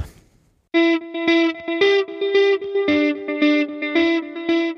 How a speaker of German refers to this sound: Und ja, bevor wir uns dem Abgrund widmen, hören wir erstmal etwas Musik, um vielleicht die Laune noch etwas zu heben. Musik ab.